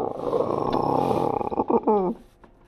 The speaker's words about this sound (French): Puis, un peu plus tard, il entendit un lion rugir dans l'obscurité.